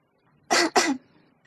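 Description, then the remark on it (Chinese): A woman clears her throat in two quick, raspy bursts, the second slightly longer, with near silence before and after. “舞姿严肃的清了清嗓子，随后对韩梦道：“你好。”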